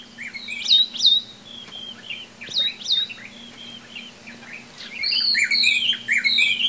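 Forest ambience in Kenya filled with birdsong: several birds chirp and whistle in quick, overlapping phrases, growing busier toward the end, over a steady low hum and no talking.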